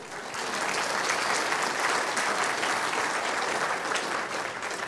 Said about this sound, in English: Yeah, thanks, guys. Mm, thanks. Let's give them a round of applause, hey?